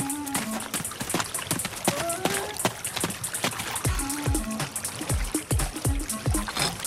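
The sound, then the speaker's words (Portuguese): A river runs and babbles steadily at its source, with frequent small splashes and gurgles popping out of a constant rushing wash, moderately loud, with no voices. “Sem perder tempo, o bando dirigiu-se para a nascente do rio.”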